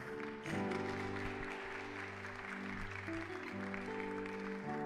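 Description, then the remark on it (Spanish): A church audience claps steadily and continuously for about five seconds as applause to the Lord, a dense wash of applause over sustained keyboard chords that keep playing underneath. “¿Cuándo le dan un aplauso al Señor?”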